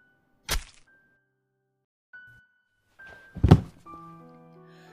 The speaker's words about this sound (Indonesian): Salah seorang pembantu sempat mendengar suara ambruk dari ruang kerja bapak.